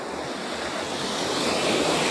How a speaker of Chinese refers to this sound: 海水有一点点的凉。海浪拍打在脚面上，很舒服。